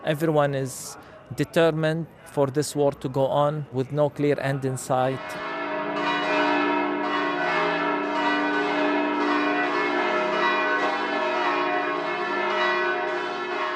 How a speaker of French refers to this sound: Nous entendons ici les cloches de la basilique de la Nativité que Nicolas Falaise a enregistrée.